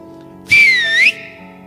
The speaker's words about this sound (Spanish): Cuando estén estos dos frentes, si vienen y te están ganando, me chiflas. Bueno, no le dice me chiflas, sino que como que me haces una seña, pues.